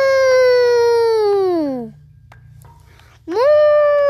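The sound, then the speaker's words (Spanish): A voice imitates a cow's moo twice: a long, sustained tone sliding downward in pitch, a short pause, then a second moo rising up from low and holding steady. “Cuando llegó a la pradera, se encontró con unas vacas ¡Mu! ¡Mu! ¡Mu!”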